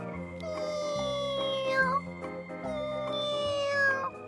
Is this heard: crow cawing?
no